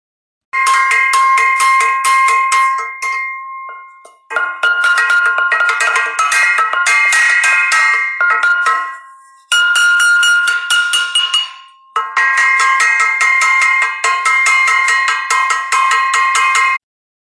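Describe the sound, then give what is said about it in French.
Loud, relentless clanging of pots, lids and spoons banged together by villagers to chase away the demon Nian. It makes a dense metallic din with bright ringing tones, coming in four long bursts separated by brief pauses. “Enfin, lorsque le vilain Nian Cho sort de son trou et qu'il approche tout crochu poilu du village, on entend un concert affreux résonner des kilomètres à la ronde. Casserole, couvercle, cuillère, tout est bon pour chasser le démon.”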